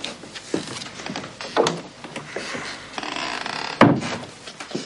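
A door shuts with a solid thud near the end, preceded by softer knocks and rattling of handling.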